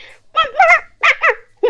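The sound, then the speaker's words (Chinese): A person vocally imitates a pig and a dog fighting, producing a string of short, high, yelping barks that sound more like a dog than a pig, in quick bursts with brief gaps. “不对，这狗， 你家猪这么叫啊？”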